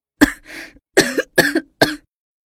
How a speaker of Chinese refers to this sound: 陶南方随后咳嗽了好几声，吓得宋恒德面色微变。